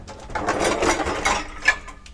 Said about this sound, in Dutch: Ik haal dingen uit de vaatwasser, dat scheelt weer. Dat doet iedereen natuurlijk.